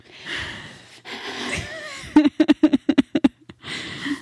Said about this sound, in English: you want to know what's triggering me? Hmm. You breathing into that microphone. I'm so sorry.